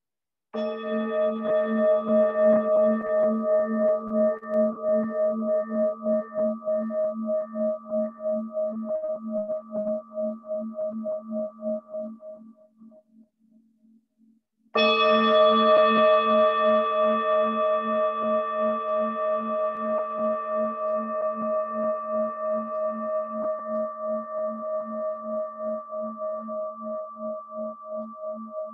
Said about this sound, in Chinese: 准备好之后，可以闭上眼睛，听这个声音。 听到铃声升起、停留、消失。